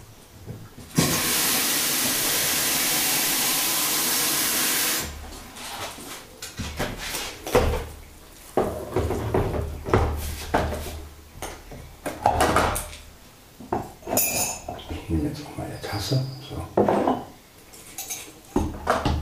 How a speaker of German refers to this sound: Wie gesagt, das Pumpen müsst ihr einfach ignorieren. Das tut er normal und ja, Gut, dann werde ich mir jetzt in Ruhe meinen Kaffee machen. Und ihr könnt mal wieder hören.